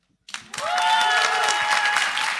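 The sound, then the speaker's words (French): Audience applause breaks out suddenly and builds into a steady, dense wash of clapping that stays loud throughout, with a few sustained tonal whistles or cheers riding over it. “On peut l'applaudir.”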